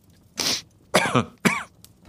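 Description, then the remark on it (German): A man gives three deliberate coughs to get attention, one breathy burst followed by two throaty, voiced ones, with short pauses between and no talking. “Mr. Brown versuchte es mit Husten.”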